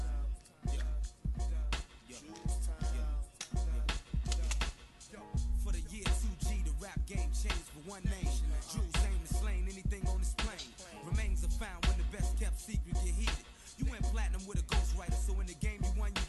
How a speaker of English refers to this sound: This was the first single or the first song that people heard. It was like leaked on the internet in the early days of internet leaks. It's uh, it's vulgar to say the least.